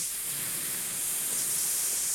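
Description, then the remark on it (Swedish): A long, steady exhale pushed out through the teeth and lips as part of a breathing exercise, a continuous airy hiss that stays even for about two seconds with no voice. “Och sen så andas man ut som genom tänderna och, och läpparna så här”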